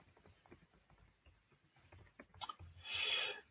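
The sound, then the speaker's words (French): Quiet, rapid clicking of a person typing on a computer keyboard, in uneven bursts of taps, ending with a brief louder rustling hiss. No one speaks. “est en train de taper sur son clavier, ce que vous entendrez probablement au mix”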